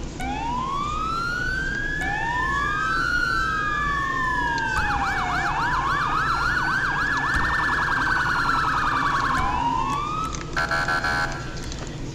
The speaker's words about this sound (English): That's um, give you guys a siren demo. Uh, for those that are new, I did change my sirens, so here,